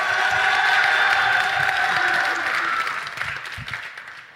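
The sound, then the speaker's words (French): A crowd claps and cheers loudly for the host during a qualifying round of a noise contest, reaching 108 decibels on a decibel meter: a dense roar of applause with shouts that holds steady, then gradually thins and fades toward the end. “Et pour moi, faites du bruit, s'il vous plaît”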